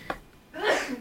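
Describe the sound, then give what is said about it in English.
A single sneeze: a quick sharp intake of breath, then a noisy, breathy burst that trails off after about half a second. “Bless you. Bless you.”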